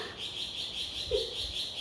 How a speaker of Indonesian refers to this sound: jadi translate-nya ya dari yang tadi cicitan burung itu